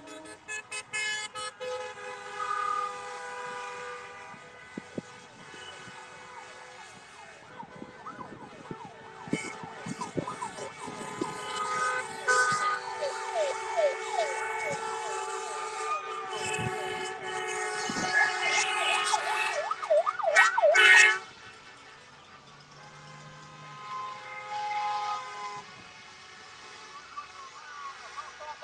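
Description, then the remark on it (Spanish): Many car horns in a car caravan honk over and over in a loud, overlapping chorus, long sustained blasts mixed with short toots, with a siren-like wail woven through before the noise suddenly drops. “Suene cornetón, suena.”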